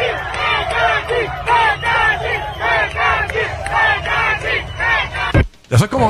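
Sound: crowd screaming and shouting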